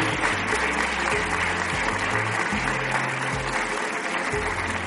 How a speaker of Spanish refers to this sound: Y yo pediría para ella un fuerte aplauso porque eso es un motivo de, colaboración con el Padre Ángel.